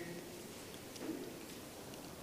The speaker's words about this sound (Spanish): ¿Listos? ¿También? Escucho hojas todavía.